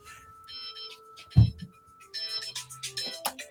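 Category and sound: signal or alarm, phone ringtone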